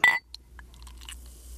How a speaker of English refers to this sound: All right, well, let's drink this. I'm going to pour it.